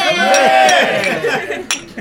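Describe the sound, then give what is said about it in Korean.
Glasses clink a few times, bright and brief, amid a lively group of voices talking and cheering together, during a toast among five people at an after-party following a film screening audience talk. “자, 자, 그 마지막까지 함께한 다섯 명에게만 행운이 깃들기를. 자, 건배! 건배!”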